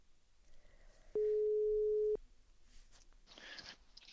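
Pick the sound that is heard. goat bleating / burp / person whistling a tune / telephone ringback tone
telephone ringback tone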